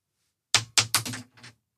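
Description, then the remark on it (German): A six-sided die numbered only 1 to 3 tumbles across a hard surface: four or five quick, sharp clattering knocks in about a second, the last ones softer as it settles. Fairly loud, with no talking. “Wie gesagt, es ist ein Würfel, der geht nur von 1 bis 3.”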